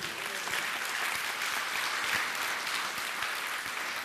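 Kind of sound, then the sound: crowd, audience applauding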